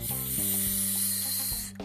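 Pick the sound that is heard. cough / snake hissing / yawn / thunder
snake hissing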